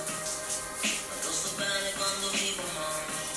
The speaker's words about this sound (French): c'est le bruit de fond d'une douche chaude et d'une chanson qui fait réfléchir. Euh, on le sait, euh, le bruit de l'eau est un relaxant et la musique euh, active des endorphines, qui sont des hormones analgésiques et excitantes.